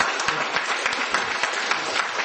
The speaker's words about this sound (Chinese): 好，掌声鼓励一下，不错。